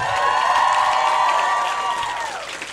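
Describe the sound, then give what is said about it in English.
A large crowd applauds and cheers loudly for Michelle Wolf, a dense wash of clapping with whooping voices that holds steady for a couple of seconds, then gradually fades toward the end. “Give it up one more time for Michelle Wolf.”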